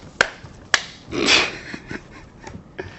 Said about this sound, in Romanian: Vreau o bătaie de palme să am simt pe asta.